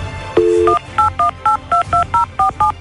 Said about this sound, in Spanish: Quédate en la línea telefónica. Ahora vamos a marcar a don Pancho.